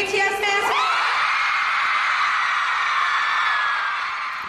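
A huge crowd of fans at the Billboard Music Awards screams and cheers at the mention of a band's name, a loud, sustained high-pitched roar that swells suddenly after a brief voice and holds steady, fading only slightly at the end.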